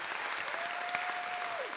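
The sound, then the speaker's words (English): A church audience gives God a hand clap of praise, dense, steady hand clapping that fills the whole moment, and a faint sustained tone hums underneath before sliding downward at the end. “Wait a minute, let's give God a hand clap of praise today because He's so worthy and good”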